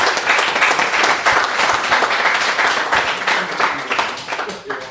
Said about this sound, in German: Also da, dafür wirklich nochmal allerhöchsten Respekt und Applaus. Vielen Dank.